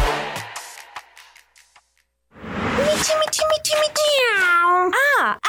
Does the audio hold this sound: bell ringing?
no